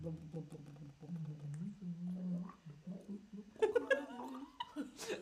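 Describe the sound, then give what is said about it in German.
A voice imitates gurgling, bubbling water, starting with a wobbly low hum and breaking into choppy, burbling bursts near the end, with a hint of laughter. “Rechts hört ihr, wenn ihr ganz genau hinhört, hört ihr ein Gluckern und Blubbern.”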